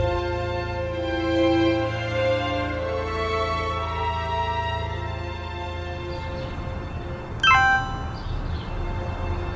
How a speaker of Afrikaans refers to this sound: Is daai jou foon? Wat? O ja, dit is ja, ek het skoon vergeet hoe die ding klink. Jy het 'n boodskap.